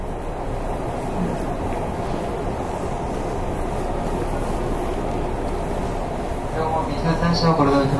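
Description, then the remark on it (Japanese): Steady, loud rumble of a Nishitetsu 8000 series six-car limited express train bound for Omuta, running from Fukuoka to Kurume, heard from inside the car, with continuous wheel and motor noise; a voice briefly rises over the din near the end. “西鉄8000系 特急 福岡から久留米まで”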